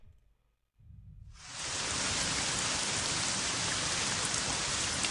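Steady rain falling, a dense hiss that swells in over the first couple of seconds after a brief low rumble and gap, then holds loud and even. No one speaks.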